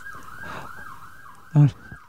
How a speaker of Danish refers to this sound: det er nede fra gaden. Ja. Øhm, jamen, altså, jeg tror nogle gange, de kører frem og tilbage med udrykning for at mor sig selv.